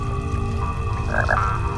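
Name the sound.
toad croaking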